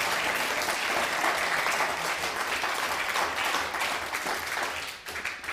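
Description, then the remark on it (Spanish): A crowd applauds steadily and loudly, dense clapping filling the space for several seconds before tapering slightly at the end. “No, pero que se escuche fuerte el aplauso.”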